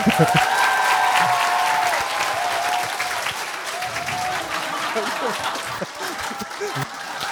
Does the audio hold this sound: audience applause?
yes